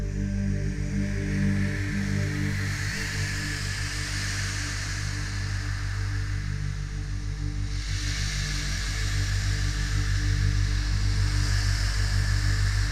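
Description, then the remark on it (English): Surf hisses steadily on a beach at Kessingland, Suffolk, on a moonless night, a continuous broad wash that swells louder at the start and again in the second half, with a low, even hum beneath it and no voices. “We listened to the surf hissing, hissing in Kessingland.”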